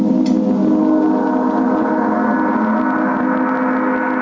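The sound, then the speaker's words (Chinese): Singing bowl and gong tones ring together in a sound bath class, a loud, sustained, shimmering drone with layered overtones humming steadily and slowly fading without any voices. “柔和的光线打进教室，搭配颂钵和锣发出的既广阔又和谐的声音，在耳边久久不散。”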